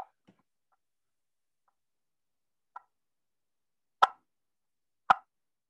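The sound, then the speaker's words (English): A game call is played by holding firm pressure and picking at it like a guitar string, the hand moving only about an eighth of an inch. It gives a few sharp, plucked pops spaced seconds apart, starting faint and ending with two louder, crisp notes. No one speaks. “You just hold firm pressure. And I'll tell those kids, I'll say, you make believe there's a guitar string across that call and you want to pick it.”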